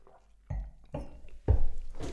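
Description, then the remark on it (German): Glasses clink together in a toast, a few separate knocks and clinks spaced about half a second apart, fairly soft, with no talking. “Wir müssen natürlich Jammers. kurz nochmal anstoßen hier.”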